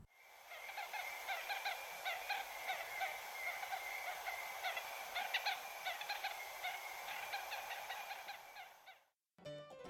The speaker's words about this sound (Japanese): ではこの鳥がどうやって人や動物に蜂の巣があるよって知らせてるかを聞いてみてください先ほどのさえずりとはちょっと違った鳴き方をします